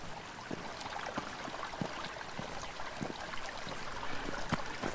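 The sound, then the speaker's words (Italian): A mountain stream in the woods flows steadily, its broad rushing hiss broken by small bubbling splashes and brief gurgles scattered throughout, with no voices present. “Adesso, per esempio, sono venuto qui in montagna a camminare nel bosco, a sentire l'acqua che scorre”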